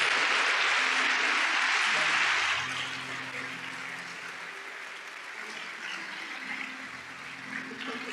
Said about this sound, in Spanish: Así que Gracias por ser parte también y damos un aplauso a la iglesia.